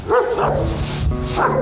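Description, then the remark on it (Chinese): A fierce dog barks and growls in a rough, continuous run of loud, harsh woofs with snarling tones in between, with no other sounds. “哇哦，这条恶犬已经要朝我扑过来了。”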